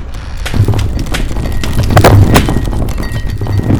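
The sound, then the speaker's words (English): A wooden house on stilts collapses, its back falling first, tipping and twisting as the stilts splinter one by one, in a loud, sustained roar of rumbling and groaning, with several sharp splintering cracks bursting out one after another over a deep, heavy low end. “The back of the house fell first, tipping and twisting mindlessly as the stilts splintered one by one.”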